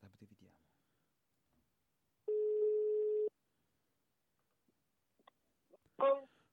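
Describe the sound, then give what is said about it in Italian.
A single loud, steady phone ringback tone sounds for about a second, flat and unbroken, as an outgoing call is placed. Brief bits of speech come before it, and a voice returns shortly after. “Squilla, forse anche troppo alto quasi.”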